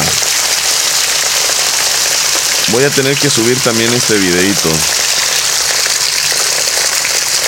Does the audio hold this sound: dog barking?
no